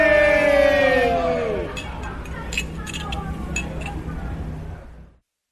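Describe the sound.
Glasses clink together in a second toast, several bright, quick chimes scattered over a couple of seconds, following a burst of voices and above a steady murmur of a crowd.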